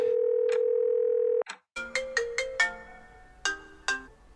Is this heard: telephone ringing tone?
yes